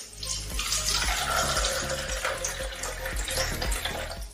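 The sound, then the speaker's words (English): Tap water runs steadily into a container holding a tea bag, a continuous splashing rush that stays loud for several seconds with no voices over it. “Okay, put in the tap water.”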